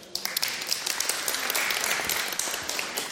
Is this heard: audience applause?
yes